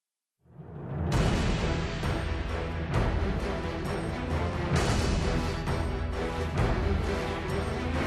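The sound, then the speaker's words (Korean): Loud, dense instrumental music, the main theme of the video game Ninja Gaiden 2, with a driving, rhythmic beat and heavy full-range layers, swelling in after a brief quiet start and continuing steadily without any voices. “자, 지금 나오는 곡은 닌자 가이든 2의 메인 테마곡입니다.”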